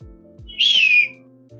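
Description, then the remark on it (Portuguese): A man imitates an eagle's cry: one loud, shrill, slightly falling screech lasting about half a second, standing out above a low, steady background hum. “Ele tentou imitar uma águia, tá, gente?”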